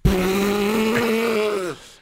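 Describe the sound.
A voice imitates a souped-up car engine, like the cars kids soup up in the city, holding a steady, buzzing vocal drone for nearly two seconds before it drops off and fades. Loud, with no other sounds.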